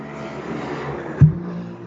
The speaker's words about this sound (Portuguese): olha a moto